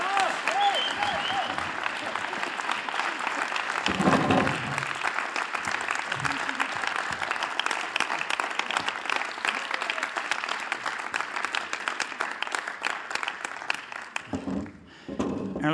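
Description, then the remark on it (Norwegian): An audience welcomes a woman with sustained applause, a dense, even patter of many hands clapping steadily for about fifteen seconds before thinning briefly near the end, with a few cheers mixed in. “Hvis dere klapper, så er jeg litt usikker på hvordan du tar det.”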